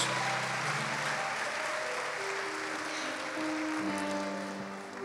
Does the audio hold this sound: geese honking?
no